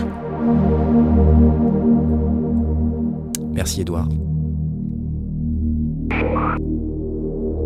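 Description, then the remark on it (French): GForce Software's recreation of the Moog Model D synthesizer, its second iteration, holding thick, buzzy low notes rich in harmonics, sustained throughout, with a brief spoken thanks and a couple of short noisy bursts over it. “C'est une recréation de chez GeForce Software du MOG bah, Moog Model D.”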